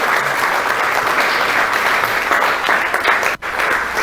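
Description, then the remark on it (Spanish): A church audience applauds for God during a sermon in a steady, dense burst of clapping that fills the room, continuing for several seconds with a brief dip near the end. “Dele un aplauso a Dios, por favor.”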